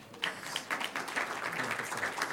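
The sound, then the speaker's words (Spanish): Many people break into steady applause, a dense patter of many hands clapping at once, moderately loud and continuous with no voices over it. “wow, un aplauso hermano Fidel”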